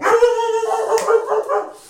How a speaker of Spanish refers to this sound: Lo siento. Espero que no hayamos dejado a nadie sordo. Mi perra es muy efusiva, como veis.